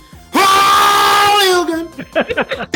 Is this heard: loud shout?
yes